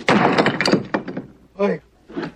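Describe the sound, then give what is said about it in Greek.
A heavy stone tablet, one of three commandment tablets, falls from Moses' hands in a Mel Brooks scene and smashes with a loud crash and a second of clattering debris, followed by a couple of short vocal exclamations. “Δυστυχώς όμως, από τις τρεις πλάκες έπεσε η μία από τα χέρια του Μωυσή και έσπασε.”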